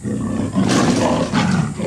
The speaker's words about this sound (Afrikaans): Brul die luiperd.